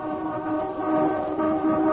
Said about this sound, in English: There's no need to get out of the car, darling. Just sound the hooter. No point in both of you getting wet.